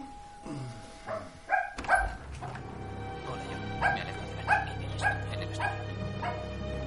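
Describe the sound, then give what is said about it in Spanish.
A dog barks several times in irregular, fairly loud bursts, with a high whine in between, over a steady low hum and no talking. “El dueño del perro prepara unos sándwiches ajeno a los recién llegados.”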